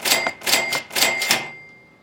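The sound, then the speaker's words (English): A cash register rings up: a quick run of loud mechanical clacks and clunks, about five bursts, with a bright metallic ring that lingers and fades after the keys stop. No one speaks. “Now, it, it may not sound very frightening it's just some hedge funds ringing the register, right?”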